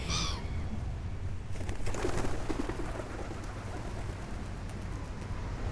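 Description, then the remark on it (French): A single short, harsh seagull cry rings out at the very start, then gives way to a steady wash of outdoor noise with no further calls. “Ta gueule, la mouette.”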